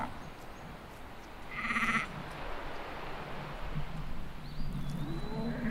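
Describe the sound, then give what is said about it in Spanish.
A sheep from a transhumant shepherd's flock lets out one wavering bleat at night, over a steady outdoor ambience of low rumble and hiss, with a faint high call drifting in near the end. “El pastor trashumante, único ser humano que habitaba de este lado del planeta, al escuchar los balidos de las ovejas, despertó de su sueño nocturno.”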